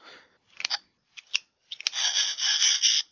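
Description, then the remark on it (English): Plastic toy pieces of a Transformers figure's head, the character Cerebros, click into place as it is transformed, in a few sharp, paired snaps, followed by a longer, bright ratcheting rasp as the last parts lock together. No one speaks. “and he makes that classic transforming sound as you click the last few pieces into place.”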